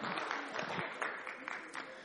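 An audience applauding together during a church service, a dense, steady patter of many hands clapping with a few sharper claps standing out, sustained evenly throughout with no one speaking.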